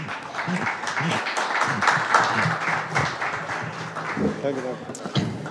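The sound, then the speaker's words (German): An audience claps steadily in a dense, continuous wash of applause, with voices and brief speech mixed in underneath throughout, after a speaker's talk about beer at an event where brewers present. “Ihr könnt ruhig klatschen.”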